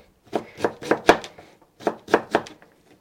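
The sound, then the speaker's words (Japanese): A knife minces carrots on a cutting board: two quick runs of about four crisp thuds each, separated by a short pause, with no voices. “構な量になりましたねこれみじん切り”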